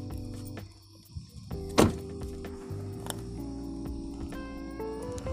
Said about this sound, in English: I just got out of the car, by the way, hit the alarm on my vehicle currently outside. Probably hear all of the insects and shit outside, but fuck it.